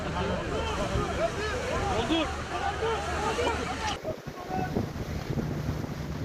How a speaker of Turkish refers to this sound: Ee, araba gitti. Araba gitti. Rize'de dalgalar otomobilleri yuttu. Sahildeki iş yerleri kullanılmaz hale geldi. Kıyıdaki bir sosyal tesisin güvenlik kamerası kaydetti bu görüntüleri. Dalgalar ne cam ne çerçeve bıraktı.